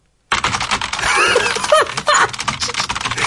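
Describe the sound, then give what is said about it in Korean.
An elderly man types rapidly and continuously on a computer keyboard with both hands, using all ten fingers: dense clattering keystrokes, fairly loud, running steadily for about three seconds with no voices. “키보드에 두 손을 가지런히 올려놓으셨답니다.”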